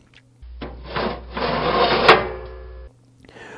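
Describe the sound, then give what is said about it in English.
An old iron door attached to a small wood frame, built as a sound effect for a potbelly stove, scrapes and grinds on the frame for a couple of seconds, ending in a sharp metallic clunk as it shuts, fairly loud. “For a potbelly stove needed on the Gunsmoke show, they built a small wood frame and attached an old iron door.”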